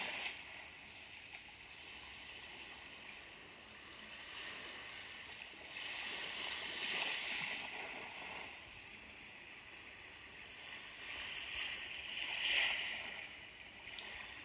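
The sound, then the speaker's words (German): Sea water rushes and sloshes steadily beneath a wooden jetty, a broad hissing wash with gentle swells building around the middle and again near the end. No voices. “Unter dem Steg rauscht das Meer.”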